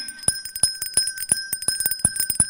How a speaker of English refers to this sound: Stupid bell ringer.